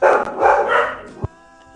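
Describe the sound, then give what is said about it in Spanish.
Dogs bark in a quick flurry of loud, overlapping yelps, then fade into a quieter tonal hum with a soft thump near the end. “Los perros.”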